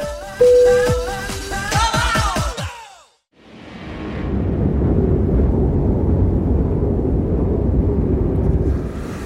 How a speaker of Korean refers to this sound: 눈보라가 거세게 몰아치는 이곳은 알라스카의 미러레이크 입구입니다.